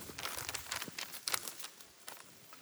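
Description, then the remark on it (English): Many sheets of paper, left on the seats for a pastor's audience, rustle and crinkle at once as the audience handles them, a soft, continuous patter of overlapping crackles with no one speaking. “So if you came in this morning, there should have been a sheet of paper in your seat. How many of you have a sheet?”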